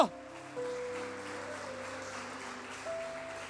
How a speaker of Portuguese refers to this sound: E vamos aplaudir ao Senhor Jesus bem alto.